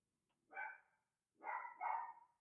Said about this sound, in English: So I think, can you hear my damn dog? Can you hear that? Yeah. Can you oh, hear Frank? Yes, I can hear Frank. He's going fucking berserk. Hey, Frank! Shut up! Be quiet, Frank!